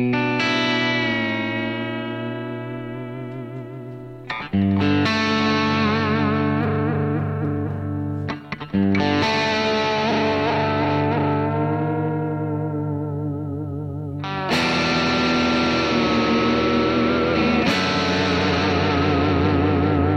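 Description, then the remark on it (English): A loud distorted electric guitar fitted with a tremolo bridge plays long ringing chords, re-struck every few seconds, their pitch wobbling and bending from the tremolo bar. No one speaks. “And like I said, I'm I'm using one on a guitar that really wasn't a great guitar before. Now it's great.”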